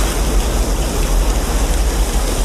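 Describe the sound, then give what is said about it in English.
A loud, steady roar of rushing water from a waterfall in a film scene where a man leaps down it, with a deep rumbling low end and a constant hiss. It fills the whole moment without pause, and no one speaks. “I'll play that sort of final bit where he leaps down the waterfall uh, to close out the segment.”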